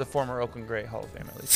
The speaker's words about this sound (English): That's the sound of a Lagunitas opening.